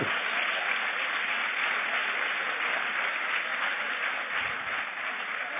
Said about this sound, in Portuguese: vamos aplaudir ao Senhor, Ele que diz a verdade.